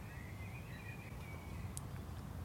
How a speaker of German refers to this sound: Ja, das Rauschen, das man hier im Hintergrund hört, das ist die nahe Autobahn.